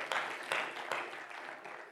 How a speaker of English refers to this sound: Oh, clap your hands unto the Lord today.